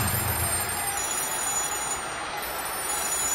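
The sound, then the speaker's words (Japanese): Many telephones in the reporters' seats behind home plate at Jingu Stadium ring at once during a Hanshin–Yakult baseball game, a dense, continuous jangle of overlapping bells, steady and fairly loud throughout, with no voices. “ネット裏記者席の電話が一斉に鳴り響いた担当キャップと本社のデスクとのこの試合最初の優勝原稿の打ち合わせである”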